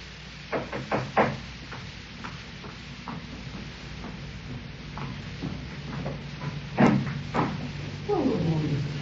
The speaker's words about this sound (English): Next morning, I was having breakfast when I heard the postman knock at the door.